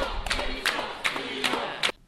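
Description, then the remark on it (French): A crowd of student protesters at a spontaneous rally shouts in unison, with about five loud, rhythmic bursts of chanting at a steady pace over a constant murmur of voices. “C'est vraiment un rassemblement spontané. Voilà, les premiers cris.”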